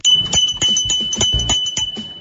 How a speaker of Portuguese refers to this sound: Essa aqui é a campainha do artesanato mineiro